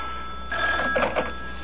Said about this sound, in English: Oh, the phone. Wait.